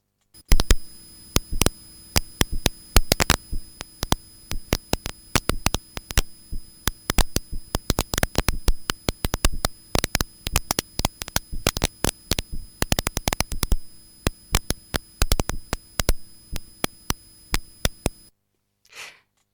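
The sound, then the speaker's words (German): Sharp, dry clicks from drought-stressed trees crackle in irregular bursts over a steady electronic hum, some rapid and clustered, others isolated, with no voices throughout. “das waren ächzende Bäume.”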